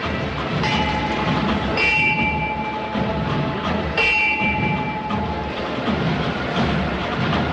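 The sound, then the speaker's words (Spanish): Signal strikes for lowering the procession float (trono) of the Cofradía de la Buena Muerte near the end of the official procession route: two bright metallic rings a couple of seconds apart, each briefly lingering, over a steady loud wash of crowd and street noise with no talking. “Son los toques característicos a la hora de arriar un paso en la cofradía de la Buena Muerte.”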